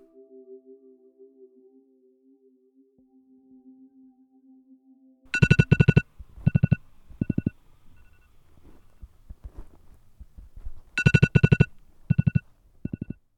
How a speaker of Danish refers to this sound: Nu er klokken 6.40, og alarmen ringer for anden gang. Det er lidt som om, at det bliver lidt mere alvorligt for hver gang alarmen ringer, fordi jeg ved, at på et tidspunkt, så bliver jeg nødt til at stoppe.